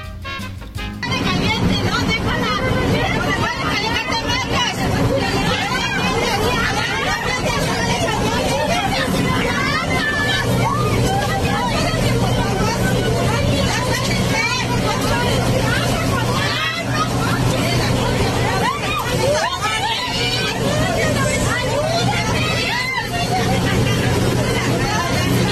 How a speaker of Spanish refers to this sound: Ahorita, ahorita lo comentamos porque más allá del morbo de que están dando un agarrón espantoso y hay sangre y todo, nomás escuchen el pleito. Escuchen lo que gritaba la gente alrededor.